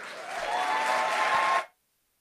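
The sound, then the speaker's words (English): A burst of audience applause and cheering celebrating teens moving on from a community, dense and steady for about a second and a half, with a few voices rising through the clapping before it cuts off abruptly into silence. “So, cheer.”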